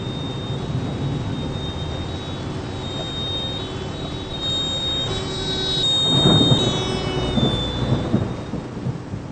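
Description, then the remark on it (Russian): Steady heavy rain hisses throughout a thunderstorm in Bavaria, Germany, and a deep rumble of thunder swells up midway before slowly fading back under the downpour. A faint high whine sits over the storm. “Tief Tim bringt heftige Regenfälle und Gewitter nach Bayern. Regen, Gewitter. Das merke ich auch so.”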